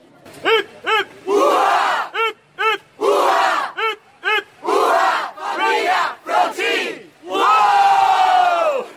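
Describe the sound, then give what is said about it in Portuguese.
Members of a marching band shout their band's battle cry in unison: short sharp bursts alternating with longer chanted phrases, building to a final sustained loud yell. “E aproveitando que a banda está aqui, a banda tem grito de guerra?”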